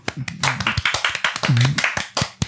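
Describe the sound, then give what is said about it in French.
Fairly loud hand clapping, around a dozen uneven claps in a loose rhythm, with brief voices sounding underneath partway through. “Applaudissez-le, s'il vous plaît, de chez vous.”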